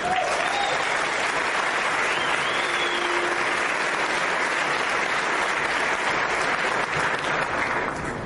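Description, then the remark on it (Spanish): A large audience breaks into sustained, loud applause for Colombia, a dense wash of clapping that holds steady for several seconds with a few faint whistles or cheers mixed in. “Eso merece un fuerte aplauso para Colombia.”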